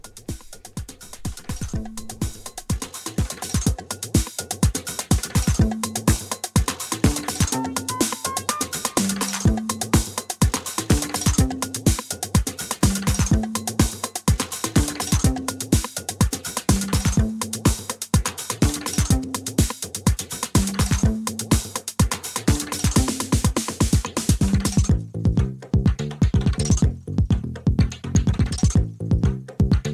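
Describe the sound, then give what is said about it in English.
A 1988 dance music track plays loud and steady, with a driving four-on-the-floor beat, crisp hi-hats and a bouncing bassline riff; near the end the arrangement thins into a brief breakdown. No one speaks. “I have to admit, this does not sound like 1988 to me. This sounds really well mixed.”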